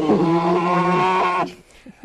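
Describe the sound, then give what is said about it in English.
A badger gives one loud, drawn-out wailing call, strongly tonal, lasting over a second before breaking off into a few faint grunts. “What is the answer to this sound? Badgering.”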